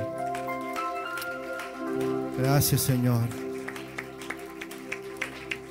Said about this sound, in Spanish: ¿Por qué no le ofrece un aplauso fuerte al Señor?